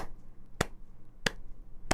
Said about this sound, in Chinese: 比如说呃，听听看我拍几下手，嗯，然后小朋友就眼睛闭着，然后你跟他玩拍快拍慢，然后比如说拍。